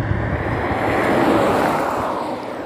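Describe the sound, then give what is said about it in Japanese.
A car full of people approaches and passes a hitchhiker on a road at a junction with the road to a town, its broad whooshing rush swelling to a peak midway and easing off slightly toward the end, with no voices. “なんか1台車が来ましたね”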